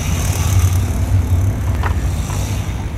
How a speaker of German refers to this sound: Ah, jetzt sind hier immer noch diese Mofas. Die Fahrt ist, sagen wir mal, ein bisschen stressig.